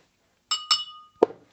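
Two bright clinks of wine glasses ring out close together with a shimmering decay, followed by a duller knock, as the glasses touch in a toast. No one speaks.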